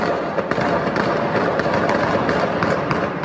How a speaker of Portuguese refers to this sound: Eles atiravam muito? Muito. Mas era muito tiro, era né? Foi duas horas de tiro sem parar.